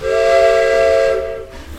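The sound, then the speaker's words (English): A steam train's whistle blows loudly and steadily for just over a second over a bed of hissing steam as the train departs the station, then cuts off, leaving a softer hiss and rumble. “Frederick rushes down the platform and boards his train just as it departs.”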